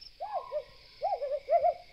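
An owl hoots three times in short, wavering calls spaced about half a second apart, clear, over a faint steady high-pitched hum of night insects.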